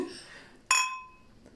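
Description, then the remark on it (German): A single bright clink of glasses touching in a toast, clear, its ringing tone fading over about half a second after faint murmuring. “Erstmal Prost, ne? erstmal Stößchen, würde ich sagen.”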